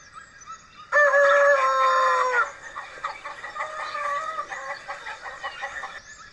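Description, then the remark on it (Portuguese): A loud rooster crows once near the start with a long, strident call, followed by a stretch of busy hen clucking and cackling that continues steadily to the end, no voices present, at a henhouse on a farm on a sunny day. “E Fifo foi até o galinheiro para saber se alguma raposa havia tentado roubar os ovos das galinhas.”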